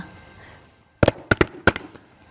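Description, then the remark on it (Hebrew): Knocking on a door: about six sharp, loud raps in quick uneven pairs over roughly a second, ending with a fainter tap. A soft background hum runs underneath, with no speech. “נשמעה נקישה, נקישה בדלת.”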